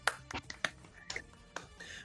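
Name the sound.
round of applause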